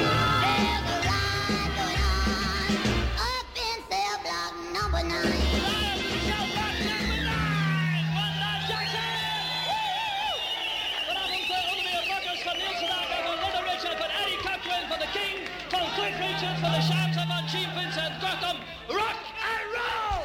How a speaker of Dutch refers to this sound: En hier hoor je die lekkere, gezellige live chaos.